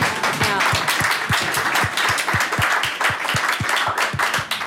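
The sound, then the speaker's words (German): Steady, rhythmic applause with distinct hand claps landing at a quick even pace, sustained for a few seconds without any talking. “Ja, kriegt, ihr kriegt von uns nach. Applaus.”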